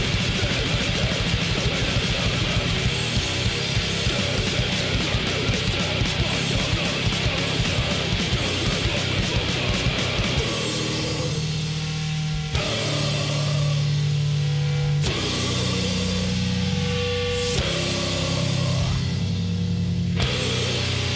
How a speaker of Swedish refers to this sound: Ehm, eh, och ja, den låter så här. Låter som klassisk grindcore från the get-go.